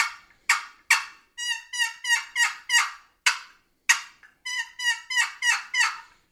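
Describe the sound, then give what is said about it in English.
Sharp, rapid clucks from a turkey box call break into runs of raspy, rising yelps, an excited back-and-forth of cutting and yelping played loud with no talking. “So an excited cut, always throw yelps in with it.”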